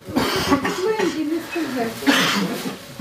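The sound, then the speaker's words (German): A soldier with breathing difficulty coughs heavily and repeatedly after inhaling an unknown gas warfare agent, at an emergency station in Donbass: harsh rasping bursts with strained, breathy vocal sounds between them and a final prolonged hacking cough. “Sie haben Atemnot und Husten, einer besonders stark.”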